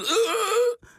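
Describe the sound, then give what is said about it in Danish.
A person voices a long, wavering groan that sways in pitch for most of a second, then breaks off into a brief breathy gasp, imitating the misery of a sudden high fever, an acute symptom of pneumonic plague. “Det er lyden af høj feber, der pludselig sætter ind.”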